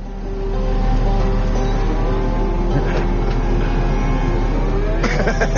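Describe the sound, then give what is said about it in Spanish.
A fire truck's engine rumbles steadily throughout, a loud continuous low drone with a faint rise in pitch near the end, heard from inside or just beside the moving vehicle as it drives to a factory. “Vayamos a coger el coche de bomberos y vamos a la fábrica del nada.”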